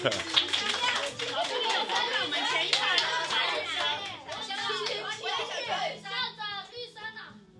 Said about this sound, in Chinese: 掌声鼓励。